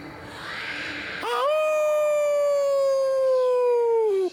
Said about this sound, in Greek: Ο άνεμος φύσουσε σε όλο το νησί όλο και πιο δυνατός. Τα δέντρα στο δάσος που σφυρίζει άρχισαν να σφυρίζουν.